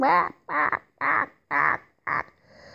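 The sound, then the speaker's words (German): A voice imitates a duck, letting out five loud, nasal quacks in a steady rhythm, each short and harsh, with brief pauses between them. “es gibt ja auch welche, die ständig irgendwie immer rumquaken, ne? so wie eine, eine Ente.”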